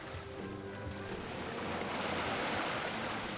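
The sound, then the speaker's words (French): Sea waves wash steadily around a boat at sea, on a voyage from Cape Verde to French Guiana, a dense rushing surge that swells louder after the first second, with a faint low hum underneath and no voices. “Je suis fièrement dressé sur le pont du bateau, me tenant au haut-banc de la main gauche, la main droite en casquette sur le front, scrutant l'horizon.”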